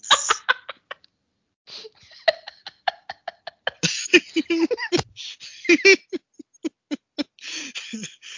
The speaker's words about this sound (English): She's now had a little coughing fit.